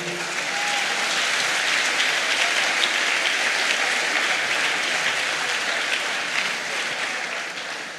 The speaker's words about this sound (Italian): Facciamo un applauso al nostro Dio.